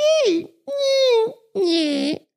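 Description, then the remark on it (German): Three drawn-out, whiny squeaks from a human voice, each about half a second long, imitating a door hinge creaking as a door is opened or closed. They are loud and separated by short pauses. “Beispiel sage ich jetzt mal eine Tür ölen. Nervt einem wahnsinnig, wenn das so”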